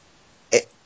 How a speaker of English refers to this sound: Bless you.